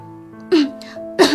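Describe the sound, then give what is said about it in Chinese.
Two short, throaty coughs about half a second apart, each a brief rasping burst with a voiced edge, over a faint steady hum and no speech. “察觉到气氛的变化，他低下头咳嗽了两声，打了个哆嗦。”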